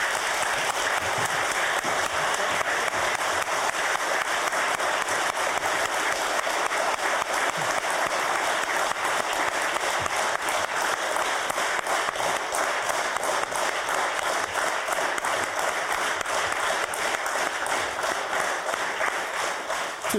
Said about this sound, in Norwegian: Nå må vi gi ham en skikkelig applaus.